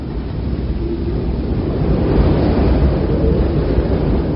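wind

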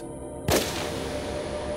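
gunshot

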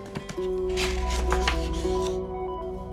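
paper page being turned

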